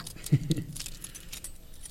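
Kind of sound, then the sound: household object, bunch of keys jangling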